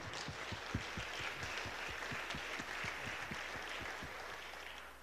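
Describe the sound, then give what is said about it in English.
A crowd of people claps steadily to give the Lord a hand after a song, producing a dense, sustained wash of applause with many overlapping hand claps and no voices standing out. “Uh, I said we should give the Lord a hand.”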